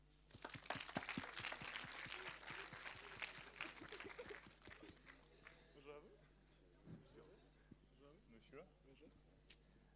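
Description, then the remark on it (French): An audience at Eloquentia applauds a volunteer coming up, dense, lively applause that fills the first half, then the clapping thins out and fades while a few voices murmur underneath. “On l'applaudit.”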